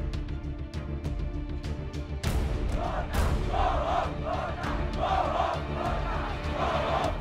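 A large crowd of Sri Lankan protesters shouts in unison through the streets, chanting "Go home, Gota": a dense roar with repeated rhythmic chanted bursts that grow louder after the first couple of seconds, punctuated by sharp clicks or bangs.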